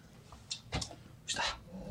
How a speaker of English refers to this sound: what type of dog do you have? An XL bulldog, yes.